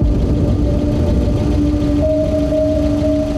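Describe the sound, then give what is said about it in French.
A car engine idles steadily in a garage, a continuous low rumble with a faint droning hum on top, unchanging throughout and with no voices. “Et un matin, elle a retrouvé mort dans le garage le moteur de sa voiture allumée.”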